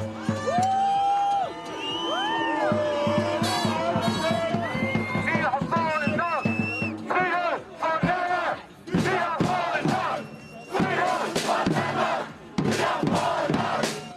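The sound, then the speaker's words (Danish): A Men in Black demonstration crowd on Ulgårds Plads on a cold, wet Saturday evening in March chants a battle song, many voices shouting together in loud, rising and falling bursts that continue steadily with only brief dips between phrases. “Og på Ulgårds Plads en kold og våd lørdag aften i marts, der var de klar til endnu en demonstration.”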